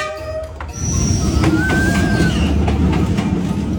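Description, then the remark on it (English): A train rolls past on a railroad in Vietnam, a heavy low rumble swelling in after a brief quieter start, with thin high-pitched wheel squeals and scattered metallic clacks riding over it. “Apparently, the, the, the railroad.”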